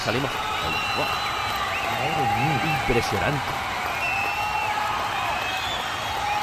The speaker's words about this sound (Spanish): pero este, este, jaleo, o sea. La gente no podía escuchar nada con este jaleo, o sea, no se escucha nada de nada, o sea, solo se escucha gente gritar.